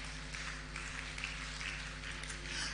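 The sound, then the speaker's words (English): An audience claps steadily for a few seconds, a dense, continuous patter of many hands at fairly even loudness with no voices over it. “I am not sure why you are clapping, because you are the children of the same father.”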